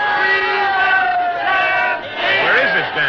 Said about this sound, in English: Oh, listen to that crowd.